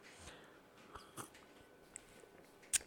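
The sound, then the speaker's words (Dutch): Someone takes a quiet sip of a sour drink: soft slurping and mouth noises, a small swallow, then a sharp little click near the end. No one speaks. “Nou, ik neem even een slokje en dan ga ik beginnen over mijn week.”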